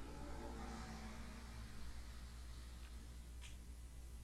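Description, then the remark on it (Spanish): A motorcycle passes, its engine a steady, low rumble with a faint hiss and no clear rise or fall. Nobody speaks. “Acaba de pasar una moto que hizo un ruido.”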